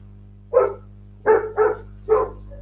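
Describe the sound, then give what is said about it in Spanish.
Four sharp dog barks ring out, one alone and then a quick pair followed by a last bark, over a steady low hum with no talking. “Bueno, esa es la señal me parece de que tengo que cortar el audio porque eh, no voy a poder seguir grabando, los perros van a seguir ladrando porque son perros, ¿no?”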